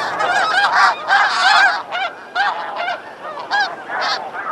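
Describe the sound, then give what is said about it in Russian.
A dense flock of snow geese in the Arctic honking continuously, many overlapping nasal calls in rapid, irregular bursts, loud, with no speech. “Учет э, белого гуся и кольцевания его.”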